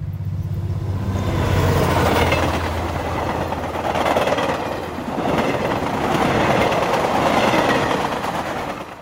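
A train roars across a railway bridge with a deafening, loud continuous rumble and rhythmic clattering of wheels that swells and surges in waves throughout, with no voices present.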